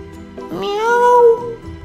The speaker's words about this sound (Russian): а это котенок был.